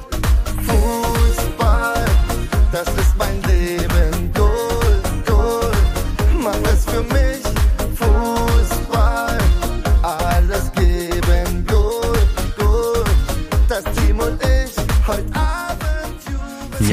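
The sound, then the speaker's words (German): A short snippet of an upbeat German football song plays loud and continuous, driven by a steady, punchy beat with full band instrumentation throughout, and no one speaks over it. “Und zwar habe ich natürlich mal so einen kleinen Schnipsel von diesem Lied raus.”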